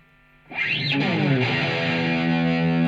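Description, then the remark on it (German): Heavily distorted electric guitar from an imported recording session file starts after a brief quiet moment, with a dense, buzzing wall of harmonics and a sweeping, wah-like pitch glide, then sustains loudly to the end. No talking. “Er meint natürlich Electric Guitar.”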